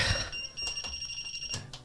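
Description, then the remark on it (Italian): A quiz buzzer panel that has been sent into tilt sounds off, holding high, shrill electronic tones with several short pulsing bursts layered over them, fairly loud and with no talking. “Hai mandato in tilt la pulsantiera.”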